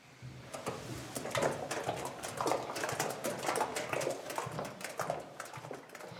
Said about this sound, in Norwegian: The cream rises to the top and I scrape that off into a jug and then pour the cream into the churn. Now I tend to pour it at quite a height so that it aerates, so that it turns quicker. And now we're ready to begin churning.